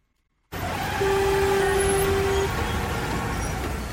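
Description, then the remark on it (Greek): After a short silence, dense road traffic noise swells in abruptly and stays loud and steady, with a sustained horn-like tone sounding for about a second and a half midway. “Η κίνηση στους δρόμους.”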